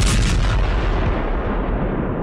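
A loud explosion with a deep rumbling roar that fills the whole clip, its high crackle slowly fading while the heavy low boom keeps rolling. No voices.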